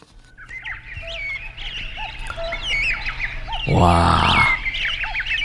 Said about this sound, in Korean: 심산유곡의 뻐꾸기 소리군요. 네, 뻐꾸기. 뻐꾸기가 우니까 다른 새들도 막 같이 우네요.